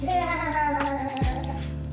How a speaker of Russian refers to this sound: заявились на запись подкаста с детьми. Поэтому, если на заднем плане вы слышите ор, смех или постукивание